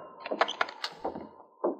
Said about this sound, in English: Sergeant Preston quietly opened the door.